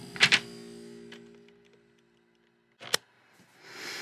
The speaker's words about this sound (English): Ugh. I just totally knocked a whole bunch of stuff over when I did that.